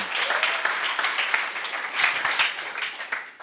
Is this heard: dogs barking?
no